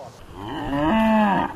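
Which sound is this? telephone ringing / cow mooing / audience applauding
cow mooing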